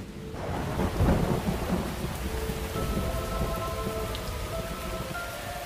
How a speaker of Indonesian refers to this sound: Lalu, Hujan turun kian lebat.